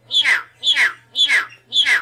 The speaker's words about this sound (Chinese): 然后等一下，我们听到还有一段，就说，哎，那感冒怎么办？然后还咳咳咳咳咳嗽怎么办？八哥还会跟你讲该怎么办？我们来听一下。